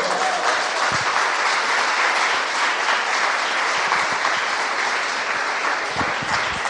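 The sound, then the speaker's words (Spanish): An audience gives another round of applause to the Lord during a sermon, applauding steadily for several seconds, a dense, loud wash of clapping hands with no break and no voices standing out above it. “¿Puede usted darle otro aplauso al Señor, por favor?”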